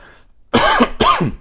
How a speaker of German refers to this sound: Und ich huste, da haben wir schon das dritte Problem mit dem dritten Affen. Offensichtlich soll ich auch nicht sprechen. Denn dieses Husten, was ihr hier im Podcast habt, das ist bei mir nicht so, dass ich rund um die Uhr den ganzen Tag nur am Husten